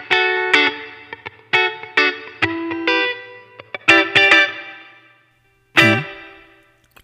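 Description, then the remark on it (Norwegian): Distorted electric guitar phrases played through a chamber reverb effect, modelled on a specially treated room with tiles and movable pillars: a few bright chords and notes, each leaving a smooth decaying tail, then a pause and one final struck chord ringing out. “Chamber er jo et ø, øh, rom, men det er litt sånn spesialbehandla rom.”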